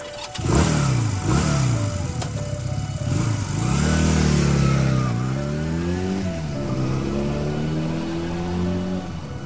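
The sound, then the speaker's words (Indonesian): A motorcycle engine revs sharply several times, its pitch climbing and dropping, then settles into a sustained rising drone as it accelerates away from a motorcycle parking area toward Garut on a Thursday night, loud with no voices. “Selesai bekerja, aku langsung pergi ke parkiran motor, mengambil motorku, dan langsung tancap gas menuju Garut.”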